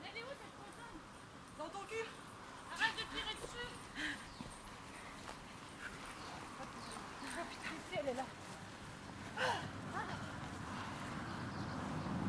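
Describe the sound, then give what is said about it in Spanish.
A crowd of marathon runners passes by outdoors in the street, a dense, steady patter of many footsteps mixed with scattered voices and street noise, holding at a moderate level for the whole stretch. “Vienen muchas personas como en una maratón.”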